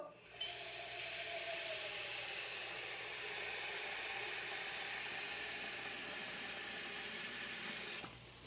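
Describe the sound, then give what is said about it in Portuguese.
Water runs steadily from a tap into a cooking pot in a kitchen, to be boiled for rigatoni carbonara, for about eight seconds, a continuous bright rushing splash that starts and stops abruptly, with no one speaking. “Então vamos aqui colocar a água na panela.”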